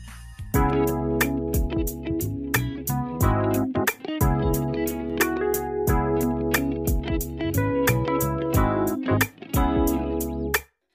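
Instrumental pop song intro with a steady, punchy drum beat over sustained, bright chords, loud and close throughout, with brief drop-outs before cutting off at the end; no vocals.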